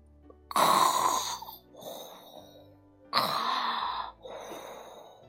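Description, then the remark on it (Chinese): A voice imitates snoring: two loud, raspy inhaled snores, each followed by a softer breathy exhale, in a slow, even rhythm with no talking. “正在这时，他们又听到了打鼾的声音。”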